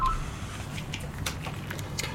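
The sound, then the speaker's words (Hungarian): A brief beep of an incoming phone call to a live broadcast, followed by crackly telephone-line noise with scattered soft clicks over a steady low hum, and no one speaking. “Van egy telefonunk.”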